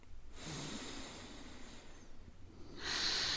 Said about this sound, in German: Nachdem wir ausgeatmet haben, machen wir eine kleine Pause, bis der Atemhunger wieder eintritt, und dann atmen wir durch die Nase wieder ein,